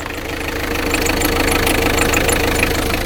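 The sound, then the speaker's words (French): A black car's engine rumbles with a steady, knocking drone, approaching from afar and growing slightly louder as it draws closer, with no voices over it. “Au loin, le vrombissement caractéristique d'une automobile se fait de plus en plus fort.”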